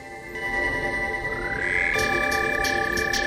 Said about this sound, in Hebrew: זה קטע שהם הקליטו עם צפרדע.